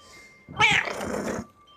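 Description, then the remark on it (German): A single drawn-out, fairly loud meow from a cat sitting on a counter in a pawnshop, rising sharply then sliding down over about a second, heard alone against a quiet background. “Die Katze sitzt hier auf dem Tresen.”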